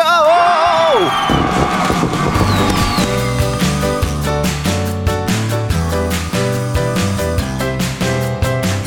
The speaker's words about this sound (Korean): 매일 아침 폭죽 터집니다. 그리고 함성이 터집니다.